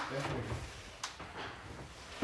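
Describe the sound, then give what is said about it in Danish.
A door in the badly damaged Silak Museum is locked with a short, sharp metallic click midway, followed by a second clunk at the end, against a low, steady background with faint movement. “Vil du låse døren”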